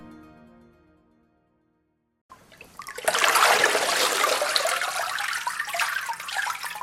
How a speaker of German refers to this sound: Also die Fasern sammeln sich jetzt hier auf der Oberfläche, das Wasser fließt ab. Ich muss durch eine leichte Schüttelbewegung die Fasern hier verteilen. Das Papier hat sich jetzt schon gebildet.